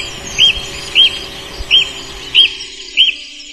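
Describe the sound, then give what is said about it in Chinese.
A magpie calls in five short, high chirps spaced at an even, unhurried rhythm, heard over a steady low background hiss with no talking. “雀雀雀，喜鹊阿姨教道：“我知道，这便是啊喔呵。”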